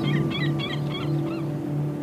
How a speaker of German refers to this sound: Die Wellen bewegen mit Leichtigkeit den Sand und schwemmen kleine verborgene Schätze an das weite Ufer. In einem perfekten Takt nimmt das Meer den Sand